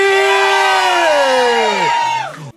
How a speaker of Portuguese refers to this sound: Gente, pode gritar! Oh. Pode bater palma pra …! Tá todo mundo extasiado,